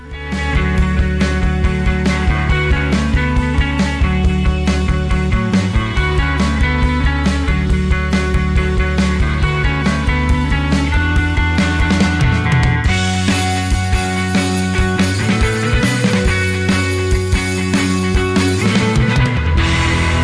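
A driving krautrock instrumental, loud and steady throughout, led by a heavy, prominent bass line with sustained synth tones layered over a repetitive beat; no voices.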